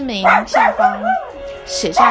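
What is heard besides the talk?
dog barking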